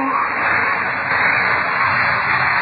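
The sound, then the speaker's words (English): A heavy chest is moved along to the head of the stairs, scraping steadily across a floor, a continuous rough grinding noise that stays loud and even for nearly three seconds, with no voices over it. “Sounds as if. as if a heavy chest were being moved. Moved along to the head of the stairs.”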